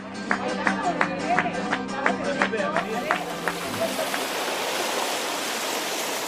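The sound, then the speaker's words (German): Waves wash onto the beach at Matalascañas, on the coast 15 km from El Rocío, under a cloudless sky at 30 degrees, in a steady rushing roar that swells and fills the second half, with indistinct voices and clatter mixed in at the start. “Die Wellen schlagen an den Strand, der Himmel ist wolkenlos, schon am Vormittag sind es 30 Grad.”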